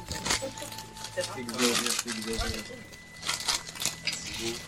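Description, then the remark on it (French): Glasses clink and knock together as they are gathered from a table, a scattered run of sharp taps with faint background chatter and some rustling. “Du coup, on, vide, on dégage les verres euh, en ce moment.”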